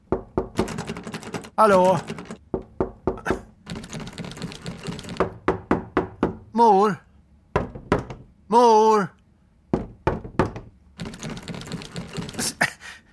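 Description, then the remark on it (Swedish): Loud rattling and repeated banging on a stuck door that will not open, in clustered bursts and single heavy knocks, while a voice calls out a few times between the blows. “Dörren går inte att öppna!”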